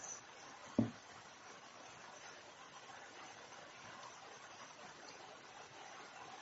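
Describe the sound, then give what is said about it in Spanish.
Rain falls in a steady, even hiss that fills the whole stretch, with one brief sharp tap near the start and no voices. “la lluvia se escucha y se ve muy bien.”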